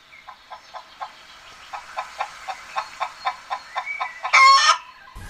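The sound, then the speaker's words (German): A string of short, repeated hen clucks in a steady rhythm, building slightly before a louder burst of squawking near the end, from hens kept with a coop, fence and sand bath at a children's daycare. No one speaks. “Chicken on Tour bringt die Tiere auf Wunsch und es gibt dazu die Grundversorgung für die Hühner.”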